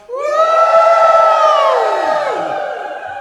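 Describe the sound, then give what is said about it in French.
A large crowd at a religious gathering lets out a loud, sustained shout of joy on a count of three, many overlapping voices rising sharply at once and holding for a few seconds before trailing off slightly at the end. “Criez de joie. Criez de joie.”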